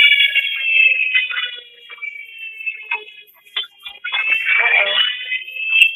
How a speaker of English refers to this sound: Y'all, what you hear is a tornado warning up in Kentucky.